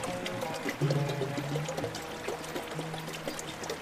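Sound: water splashing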